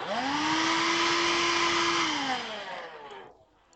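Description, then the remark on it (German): The loud cooling fan of an old Xbox 360 console being switched on roars up to a steady, high whine and a broad rushing whir, holds for about two seconds, then spins down and fades. “Vor allem, ähm, wenn du die alte Ventilator-Xbox hast. Ja, gut, die, dann. Erkennst du daran, wenn du die anmachst, klingt die so.”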